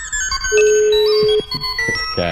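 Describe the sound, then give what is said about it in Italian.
A telephone rings with a bright electronic melody of shifting beeping tones, one note held longer in the middle, loud for a couple of seconds. “Si apprestano a comunicare con noi usando lo strumento a noi più familiare. Il telefono.”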